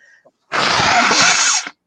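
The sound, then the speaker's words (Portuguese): A single loud sneeze into a camera bursts out with a harsh, breathy rush of air that lasts about a second before cutting off abruptly. Nobody speaks around it. “espirrou, na, espirrou na câmera.”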